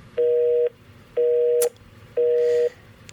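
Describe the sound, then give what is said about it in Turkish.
A telephone busy tone pulses steadily after a listener's call to a radio show drops off the line: three loud, even beeps of about half a second each, separated by equal silences, clear with no one speaking. “Dinleyicimiz hattan düştü yine.”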